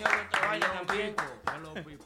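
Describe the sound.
Steady rhythmic applause, sharp claps landing at a quick regular beat, mixed under loud voices that keep talking or chanting throughout.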